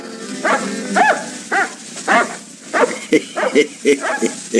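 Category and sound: animal, dog barking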